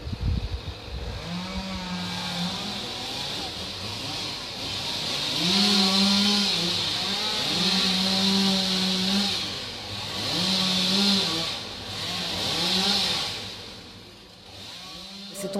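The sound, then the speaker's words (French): A chainsaw cuts down trees right at ground level, without pruning, in the rain, its engine droning steadily and surging into loud, rising-and-falling revs every couple of seconds, over a constant hiss, with no talking. “Ils ont coupé directement au ras du sol.”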